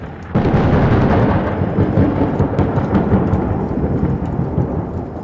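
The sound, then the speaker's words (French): A sudden loud crack of thunder bursts in and rolls on as a heavy, sustained rumble, slowly fading, with rain hissing steadily underneath. No voices. “Il déchirait le ciel noir et faisait craquer des éclairs.”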